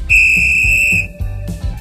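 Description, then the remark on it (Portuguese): A single sustained referee's kickoff whistle blast, loud and shrill, lasting about a second before cutting off, with a low rumbling crowd or room noise underneath. “Rola o apito inicial.”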